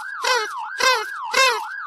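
A police siren announces the arrival of a police officer in a children's story: a continuous rising and falling wail with three louder, buzzy bursts pulsing over it at a steady rhythm. It is fairly loud, and no one speaks.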